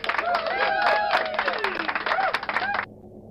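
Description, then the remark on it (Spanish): A burst of crowd applause with dense clapping and some whooping or whistling voices over it, loud and steady for nearly three seconds before cutting off abruptly. “Un aplauso.”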